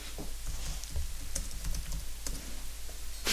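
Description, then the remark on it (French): Someone types on a keyboard in short, irregular bursts of clicks, quiet, over a low steady background hum with no talking. “On t'entend écrire.”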